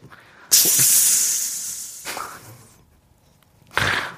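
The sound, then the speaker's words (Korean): Someone makes a long, loud hissing sound with their mouth, imitating air rushing out of a tire. The hiss fades, then a second, shorter hiss bursts out near the end. “타이어 바람 뺀다는 것도 아니고.”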